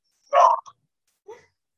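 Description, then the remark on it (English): A dog barks a few times: one full bark, a short yip right after, then a quieter bark a moment later, with silence between and no one talking. “like to the point where I can't close my doors, so you guys are gonna have to listen to this lovely barking that you hear in the background.”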